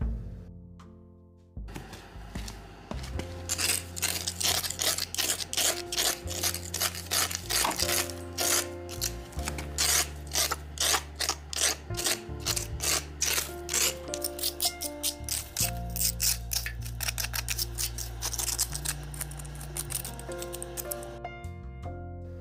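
Rapid, rhythmic scraping of accumulated moss off hard ground around a parking area, a steady shaka-shaka rasp of repeated short strokes, fairly loud, continuing for about twenty seconds with no talking.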